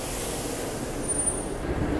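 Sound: metro train arriving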